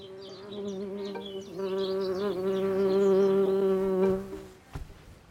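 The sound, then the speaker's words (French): A bee buzzes steadily for about four and a half seconds, its drone wavering slightly in pitch, with faint birdsong chirping in the background before it fades out. “Elle ne pouvait pas le deviner, la petite abeille, que les jolies roses ne proposent rien à grignoter aux insectes.”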